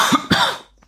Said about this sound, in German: Gesundheit, Hust, Hust